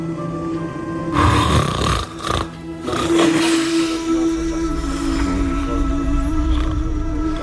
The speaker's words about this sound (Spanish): Esos ronquidos son de de ….